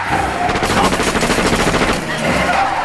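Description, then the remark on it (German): A rapid burst of loud, sharp revolver gunshots cracks out in quick succession over a dense, roaring background, aimed at the rear wheel of a car during a chase. “Haben Sie einen Revolver, Sir Graham? Ja. Ja, hier ist er. Danke. Worauf werden Sie zielen? Auf das Hinterrad?”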